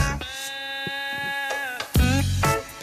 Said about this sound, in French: Pour moi, ça, c'est le son des Nocturnes. Avec la voix rauque et chaude de Georges Lang que vous retrouverez dès ce soir à partir de 23h petit plaisir, on laisse tourner la chanson.